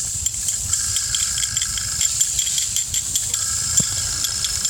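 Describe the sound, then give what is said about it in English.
Birds tap in quick, uneven clicks in a frog habitat against a constant high, buzzing night ambience, the rattling taps continuing steadily at moderate loudness with no one speaking. “We hear the birds tapping.”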